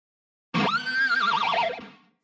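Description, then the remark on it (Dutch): A single loud, horse-like whinny played on an electric guitar, from an online tutorial on making an electric guitar sound like a neighing horse, with wavering, vibrato-laden pitch that rises sharply, warbles for over a second, then fades out. “Ja, het was inderdaad een, ehm, een online tutorial om te leren hoe dat je je elektrische gitaar kan laten ehm, klinken als een hinnikend paard.”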